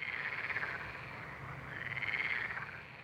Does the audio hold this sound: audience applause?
no